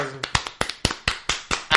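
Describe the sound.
Short burst of applause for a person being introduced: a quick series of sharp, bright hand claps in a slightly uneven rhythm, with a brief voice at the very start before the clapping takes over.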